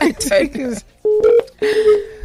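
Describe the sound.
A brief stretch of talking gives way to two steady electronic telephone keypad beeps, each held for about a third of a second with a short gap between, clear.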